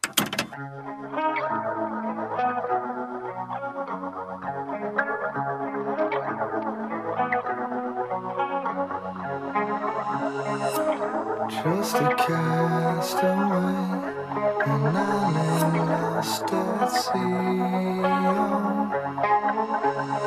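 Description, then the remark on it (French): A rock song plays at a steady, full volume, driven by distorted electric guitar with effects and a pulsing rhythm, with brief bright accents partway through. No voices are heard. “on va prendre un petit truc un petit peu plus rock'n'roll”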